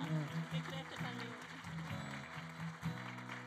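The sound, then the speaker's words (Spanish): An audience claps together for Jesus in a dense, steady wash of applause throughout, with low sustained tones, like music or a voice, running underneath. “Dale un aplauso a Jesús por todas las personas que han levantado su mano.”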